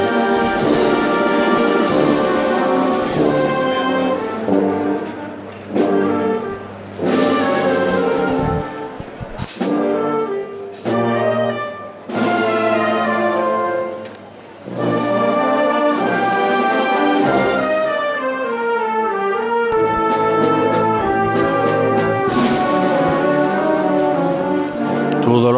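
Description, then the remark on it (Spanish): A brass procession band plays a slow, solemn Holy Week march in the street at La Campana at the close of Palm Sunday, loud and sustained, with layered horn chords, low drum beats and swelling phrases that briefly dip before building again. “Estos son los sonidos del cierre del Domingo de Ramos en la campana.”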